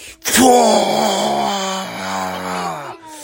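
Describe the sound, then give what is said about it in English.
A voice imitates the pained cry of the bad dragon in a story, one long sustained wailing moan with a strong harmonic tone that dips slightly midway and holds for about three seconds before cutting off. “And the bad dragon said, ah, ah, ah, and he flew out of the cave and went up into the sky, never to be seen again.”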